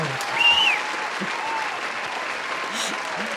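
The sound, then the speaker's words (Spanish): A canned applause sound effect, not from a real audience: dense, steady clapping from a crowd that holds at an even, fairly loud level for a few seconds, with faint voices underneath. “Hay, que aclararle a la gente que los aplausos que escuchan en, los episodios pasados no son reales, no tenemos gente aquí, pero es solo por la cuarentena.”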